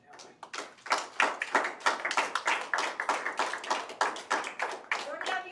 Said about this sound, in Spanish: Gloria al Señor. Denle un fuerte aplauso a Dios.